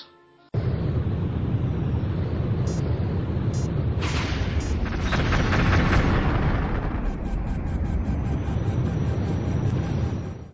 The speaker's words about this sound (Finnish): Siellä oli kuule jännitystä ja räjähdyksiä.